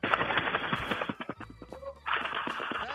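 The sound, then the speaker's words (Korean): A person mimics a flock of pigeons taking off with their voice during an impersonation contest segment on the radio program Park Myung-soo's Radio Show: a rapid, breathy flutter of wingbeat-like puffs, a brief lull, then another loud burst of flapping. “그 비둘기 때 날아가는 소리를 간단하게 한번 해보겠요 비둘기 때로 날아가는 소리입니다.”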